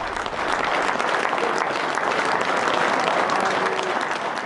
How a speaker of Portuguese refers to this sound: E entre este sentimento de liberdade, em Veneza, dezenas de pessoas juntaram-se junto aos canais para aplaudir o trabalho dos profissionais de saúde.